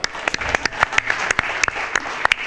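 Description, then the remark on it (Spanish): A small audience applauds for film director Rob Bowman, producing a dense wash of overlapping claps with sharper individual hand claps popping out irregularly at a steady, moderate loudness throughout. “Un aplauso para Rob Bowman, eh.”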